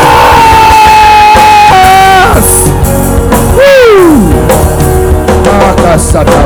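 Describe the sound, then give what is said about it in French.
A large crowd shouts and cheers very loudly and continuously, a dense roar of many voices, with individual yells and a rising-then-falling whoop cutting through near the middle. “Est-ce qu'on peut crier encore très fort?”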